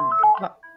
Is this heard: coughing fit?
no